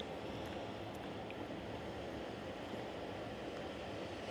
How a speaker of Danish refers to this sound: Det tror jeg var en stor bølge. Kan I høre det? Ja, det håber jeg.